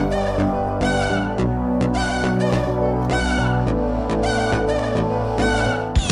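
Electronic theme music plays loud and steady: sustained synth bass notes under bright, buzzy chord bursts that return in a regular rhythm every second or so, with no voices.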